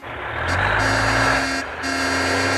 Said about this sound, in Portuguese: Moço, moço, tem lixo! Ai meu Deus, moço, volta aqui, tem lixo esse menino! E o caminhão do lixo já passou